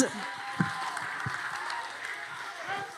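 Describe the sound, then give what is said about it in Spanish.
An audience breaks into sustained applause, a dense, steady wash of clapping lasting the whole moment, with some voices and cheers blended into the noise. “Denle un aplauso fuerte al.”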